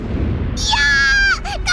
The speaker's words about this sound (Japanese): 雷このままじゃ危ないわ